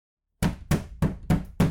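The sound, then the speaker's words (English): Five heavy, booming bangs on a door at around three o'clock in the morning, evenly spaced in a steady rhythm after a short silence, loud, with no voices. “Around three o'clock in the morning, you're awakened with a loud banging on your door.”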